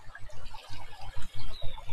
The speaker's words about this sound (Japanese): こはちょうど水が湧き出てくるところで、水源地になってまして、水の音がすごいするんですけど